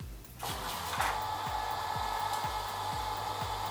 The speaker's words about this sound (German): sowie auch die, auch die Jalousien rauf und runter fahren. Ich zeige dir das mal ganz kurz.